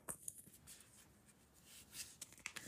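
A deck of tarot cards being shuffled, a soft papery riffling with quick flicks and light taps that come in uneven bursts, fairly quiet, with no one talking.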